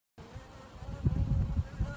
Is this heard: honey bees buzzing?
yes